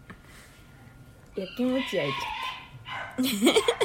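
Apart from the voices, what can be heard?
dog barking and whimpering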